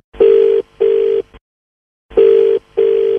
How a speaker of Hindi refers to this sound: अरे किसका फोन है ये वो सर जो आपका कैंसिल करवा के कर रहे हैं ना टिकट उनका